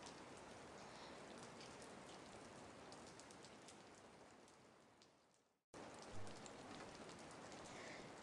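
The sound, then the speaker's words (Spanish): Steady rain patters on a hard surface, a dense, even hiss of countless drops with scattered sharper taps, briefly cutting out before resuming at the same level. No one speaks. “Pero como hoy es un día lluvioso, jugamos adentro o debajo de la lluvia.”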